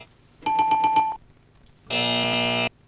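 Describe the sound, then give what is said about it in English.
A bright electronic game show ding rings out for about a second, then after a brief pause a harsh, loud buzzer blares. Both are clear, with no talking. “I'll give you a ding if you get it right, or a buzzer if you get it wrong”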